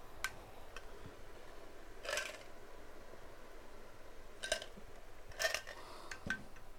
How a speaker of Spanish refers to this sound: Eso que habéis escuchado es el hielo del agua.